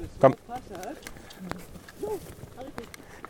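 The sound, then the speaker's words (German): Donkey hooves clop unevenly on a stony path, a few sharp knocks spaced out over several seconds, with people's voices murmuring. Donkeys carry riders on a tour up a winding, very stony path with huge stones, in a mountainous region in the middle of an island. “da gehen wir dann so einen Serpentinenweg hoch, ganz steinig, da sind riesige Steine auf dem Weg und die Esel sind unheimlich trittsicher”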